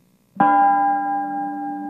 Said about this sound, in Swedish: Harmen Bretthauers Bronsbell, en typ av bronsklocka, som låter så här.